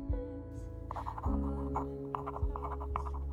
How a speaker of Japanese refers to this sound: 紙の切れ端にペンを走らせる。